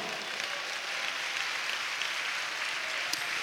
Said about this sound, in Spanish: Si estás de acuerdo, dale un aplauso al Señor.